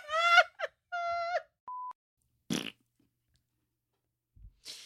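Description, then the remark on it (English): A voice imitates a fart with a short, buzzy raspberry burst, set among whiny, moaning vocal noises and a brief steady beep, followed by a couple of quieter puffs near the end. “That was a good fart sound.”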